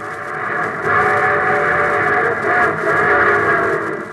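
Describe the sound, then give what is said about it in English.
A steam train whistle blows loud and sustained over the rumble of a passing train, its chord swelling and fading in two long blasts with a slight echo, no voices present; the show train opening the radio programme The Railroad Hour. “And here comes the star studded show train.”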